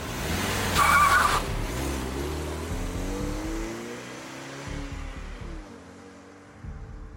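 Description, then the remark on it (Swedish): A man leaving a bank jumps into a car and drives off, pulling away hard, tires squealing sharply near the start before the engine revs and drones off steadily, with no voices present. “Han hoppar in i en bil och åker vidare.”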